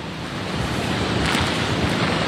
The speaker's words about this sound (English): This is the power of Hurricane Idalia, and we're right in the thick of it. The winds here have really picked up in the last hour or so as this eye wall comes really close to us.